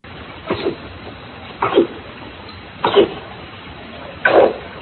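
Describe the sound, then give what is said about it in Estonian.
Underwater sounds from a perch: four short, rough grunting pulses spaced about a second apart, moderately loud against a faint steady hiss, with no voices. “see hääl kuulub ahvenale”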